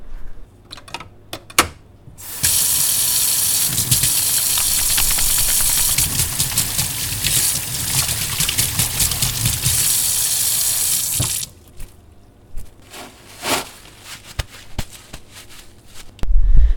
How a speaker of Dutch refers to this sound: Dus het eerste wat ik ook altijd doe als ik binnenkom in de celculture, dat is mijn handen wassen.